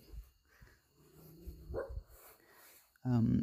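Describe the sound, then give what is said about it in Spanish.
A small dog lets out a sharp, loud bark near the end, after a stretch of quieter background noise and a faint, brief whine-like sound. “Um, perrito.”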